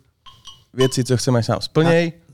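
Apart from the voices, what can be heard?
glasses clinking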